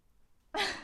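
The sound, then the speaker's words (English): After a moment of quiet, a voice suddenly lets out a loud, breathy, drawn-out blast, imitating a boat's foghorn, cut off abruptly. “Like a foghorn noise.”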